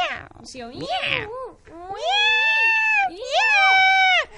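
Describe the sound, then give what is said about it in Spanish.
A person vocally imitates a cat with a southern Spanish accent from Estepona, producing a few drawn-out, wavering meows in quick succession, loud, with pitch sliding up and down like a whiny cat. “Claro, eh, más claro, un, sureño, un miau, miau,”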